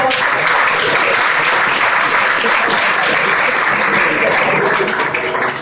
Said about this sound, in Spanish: Así entre aplausos se recibía a estos dos nuevos embajadores, como José Mourinho, que se une al equipo de comentaristas, también Neymar,